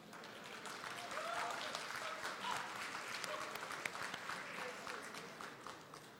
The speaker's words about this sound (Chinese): 哎，请我们用热烈的掌声欢迎马云主席这个入场，谢谢。